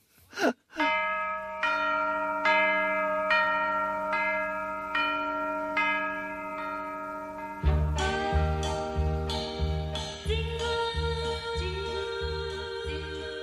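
A Christmas carol opens with steady, ringing bell chimes struck in an even rhythm, then a full band with a thumping bass beat joins in, loud and close, with no voices.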